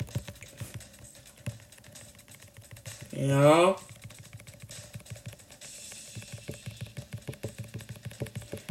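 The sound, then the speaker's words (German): Fast, steady computer clicking rattles on for the whole stretch, briefly joined by a short rising electronic tone, with a voice speaking over it. “Jetzt klicken wir uns die Hände aus den Händen.”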